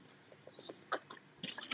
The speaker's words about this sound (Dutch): ik neem even een slok.